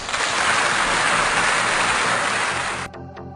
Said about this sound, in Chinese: 你们说对不对？觉得对的请鼓掌啊！